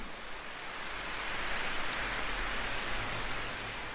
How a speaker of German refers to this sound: Dieser Ort, an dem du bist, schützt dich vor dem Regen und lässt gerade so viel Geräusch und ganz sanften Windzug zu dir dringen, dass du spürst, dass du mit der Welt verbunden